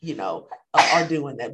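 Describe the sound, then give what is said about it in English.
A single sudden, forceful sneeze bursts out, briefly interrupting a person talking, with speech resuming right after it. “Bless you. Excuse so me.”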